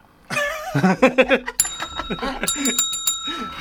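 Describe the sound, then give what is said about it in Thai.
A small bell is pressed and rung many times in quick bursts, its bright metallic ringing lingering between strikes, while voices talk underneath and just before it starts. “ต้องกดกระดิ่งหลายรอบมาก”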